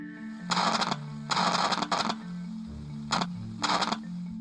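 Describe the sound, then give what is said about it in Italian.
Crackling VLF natural radio static from lightning striking far from the receiver comes in several irregular, hissy bursts of varying length, rising and falling over a steady low hum, with no voices present. “Sentivano probabilmente quelle che sono le statiche, statiche ovvero i fulmini, questo crepitio che si sente.”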